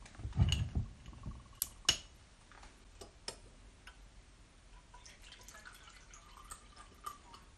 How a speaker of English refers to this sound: it's infused we need to strain it off don't we yeah that's right that's right um, okay, so I've got a little sieve here actually, and I'm just going to get a glass just to uh, pour it into.